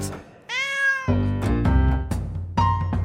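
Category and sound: animal, cat meowing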